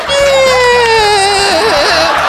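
A pet parrot lets out a long, strange, whiny call that wavers and warbles in pitch, loud, over a faint low pulsing in the background.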